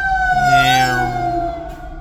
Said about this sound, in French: Je pense qu'il y a un accident parce que là, on entend un camion de pompiers qui passe.